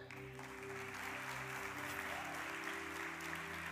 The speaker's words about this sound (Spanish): si va a aplaudir al Señor, apláudelo. Amén.